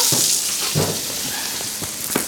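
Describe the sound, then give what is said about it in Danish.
Steady, dense hiss of rain with a few sharper drips and patters scattered through it, even in loudness, with no voices. “Den der regn.”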